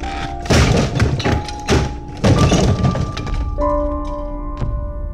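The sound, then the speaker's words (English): A front door is smashed open: a series of heavy, booming thuds and splintering crashes in quick succession, loud, then a lingering ringing tone and one last sharp knock. “That was when the front door was smashed open.”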